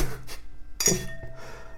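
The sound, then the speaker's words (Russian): A wine glass is handled, with a couple of light clinks and a sharp bright tap near the middle, plus faint rubbing and scraping. “Смотри, как пафосно можно держать бокал. Ты так не держи, потому что ты разобьешь.”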